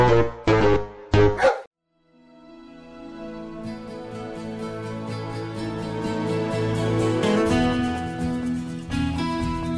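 A dog barks three times in quick succession, loud, then a brief pause gives way to a long, sustained droning tone that steadily swells and lasts to the end.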